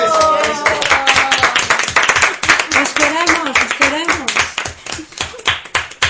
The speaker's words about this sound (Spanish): Bueno, pues vamos a dar un aplauso muy fuerte para el piano y para, el, acordeón.